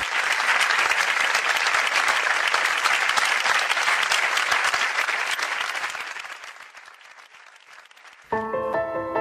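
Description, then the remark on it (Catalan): Sustained applause from many people clapping at 8 in the evening for a single doctor, Dr Santi Pinyol, one of the health workers who died of coronavirus in Catalonia; a dense steady patter that gradually thins and fades before a brief musical tone enters at the end. “Aquella tarda, a les 8, tots els aplaudiments eren per un sol metge, el doctor Santi Pinyol, un dels sanitaris morts per coronavirus a Catalunya.”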